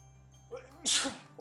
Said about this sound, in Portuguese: Aqui, é ao vivo, não tem não corta espirro não.